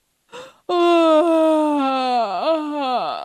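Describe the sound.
A person imitates a hippo's big yawn: a quick breathy intake, then a long, loud voiced "aaah" that slides slowly downward in pitch, wavers once near the end, and fades out.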